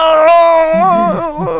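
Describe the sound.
A voice imitates the small frustrated scream let out while practicing golf alone at a driving range as a beginner: one strained, high-pitched cry that holds steadily, wavers and dips toward the end, then breaks into a couple of short choked bursts.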